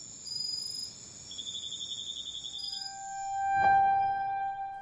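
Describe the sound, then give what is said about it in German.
Cicadas chirp in the evening in the Garifuna village of Vallecito, Honduras, in a steady, high-pitched chorus of overlapping trills that continue throughout. Near the end there is a single soft thump, and a sustained mid-pitched whistling tone joins the chorus. “ist die Zeit der Zikaden und Abendvögel.”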